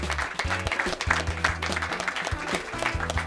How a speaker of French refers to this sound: Merci Alexandra, c'était fabuleux comme programmation. Merci Alexandra, on l'applaudit.